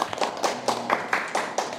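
Hands clap in a steady, brisk rhythm, about eight sharp claps in under two seconds, moderately loud with no talking over them, as applause for a guest at the end of an evening discussion.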